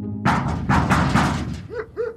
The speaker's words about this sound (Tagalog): Tandang-tanda ko pa sa edad ko noong sampung taong gulang ay takot na takot ako dahil sa malalakas na kalabog na naririnig ko sa labas ng pinto ng aming bahay.